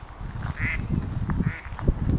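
Ducks swimming gently past on a river on a warm evening, excitable and looking for food, quacking in a lively, overlapping cluster of calls with a nasal rasp to each one and a couple of higher squawks, against low background rumble from the water's edge.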